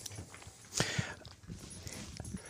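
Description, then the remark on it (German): Light scuffling and clicking of a small dog's claws and paws as it jumps on a person and moves about, with a brief louder flurry of rustling partway through and scattered soft taps around it. “Entschuldige, dass du gerade von meinem kleinen Hund angesprungen wurdest, aber mein kleiner Hund liebt dich sehr.”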